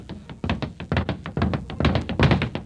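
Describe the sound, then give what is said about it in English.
A fast flurry of punches thudding into a punching bag: dozens of dull, heavy thumps in a quick, uneven rhythm, fairly loud, with no one talking. “I wish you'd get me a new punching bag. This one keeps punching me back.”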